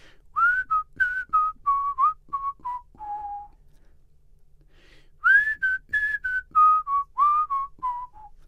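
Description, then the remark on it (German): A person whistles a melody imitating a synthesizer line, two phrases of clear notes with a short pause between them, no talking. “Und dann die, die Melodie, die ich jetzt pfeife, das ist so wirklich, wie man sich den Synthesizer vorstellt.”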